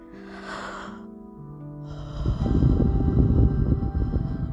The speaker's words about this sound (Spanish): Haz conmigo esto, inhala y exhala. Varias veces, hazlo pausadamente hasta que puedas escuchar el sonido de tu respiración. Vamos a hacer uno.